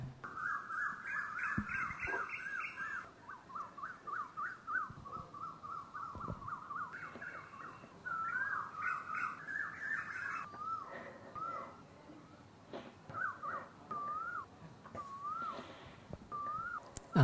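Birds sing continuously outdoors, with repeated warbling and whistled phrases, some notes rising and falling, over a soft background, no talking.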